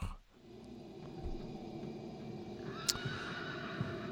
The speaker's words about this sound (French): Il y a même des chevaux. On entend des chevaux.